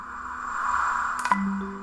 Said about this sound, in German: Also wenn Sie, was weiß ich, Milch in Ihre Kaffeetasse gießen, dann ist irgendwann, wenn man nur lang genug wartet, die Milch überall.